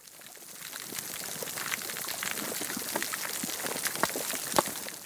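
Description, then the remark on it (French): Dense, continuous crackling of snapping shrimp underwater, countless sharp clicks and pops layered into a steady sizzling hiss, with a few louder snaps standing out; no voices. “Raté, ce sont des crevettes.”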